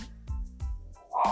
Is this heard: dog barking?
yes